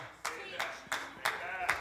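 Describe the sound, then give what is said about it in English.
One man in the audience clapping slowly and steadily, five sharp claps about a third of a second apart, with faint murmuring voices underneath. “I got about one clap from a man.”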